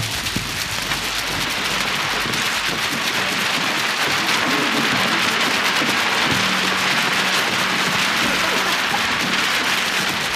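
Steady rain patters down onto a hard surface, a dense, continuous hiss of droplets at constant loudness with no voices, enveloping throughout.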